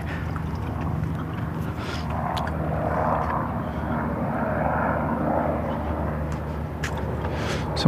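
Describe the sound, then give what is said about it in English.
An air ambulance helicopter drones steadily overhead on a sunny morning, its deep engine rumble holding at a constant, moderately loud level for the whole stretch, with no one speaking. “Sounds like air life.”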